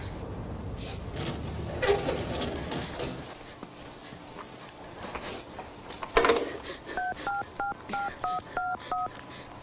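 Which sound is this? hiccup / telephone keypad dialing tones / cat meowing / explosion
telephone keypad dialing tones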